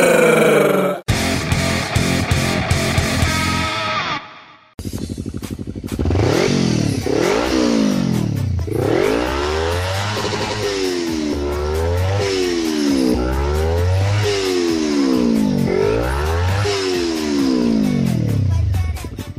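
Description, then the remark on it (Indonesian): A motorcycle engine revs hard, its pitch climbing and dropping in a steady cycle of six or seven throttle blips, following a brief burst of different sound at the start. “Woi, motor lo gas mulu itu kagak capek”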